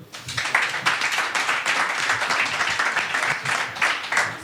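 An audience applauds a volunteer coming up to play in a quiz game, a dense wash of many hands clapping at a sustained, fairly loud level with no break, while a few faint voices murmur underneath.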